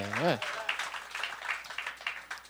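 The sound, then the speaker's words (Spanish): A crowd breaks into steady, dense applause after a brief rising shout or cheer at the start, with the clapping continuing at a moderate level throughout. “Se van a aplaudir, aplaudan todito”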